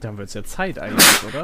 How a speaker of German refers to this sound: Boah, jetzt muss ich hier gleich nochmal niesen. das ist jetzt doof.